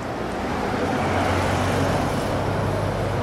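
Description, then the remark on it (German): A blue Seat Ibiza with Krefeld number plates pulls up at an S-Bahn station in southern Cologne, its engine giving a steady low rumble over broad, even road noise for a few seconds, with no one speaking. “Ein blauer Seat Ibiza mit Krefelder Kennzeichen fährt vor.”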